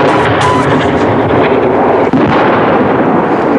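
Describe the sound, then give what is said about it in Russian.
Naval artillery guns of the surrounded battery at Tserel fire at advancing German forces in a loud, continuous roar of booming blasts and rumble, dense, with a brief momentary break partway through and no voices. “Замок, Прицел 81! Стоп! Стоп! Стоп! Огонь!”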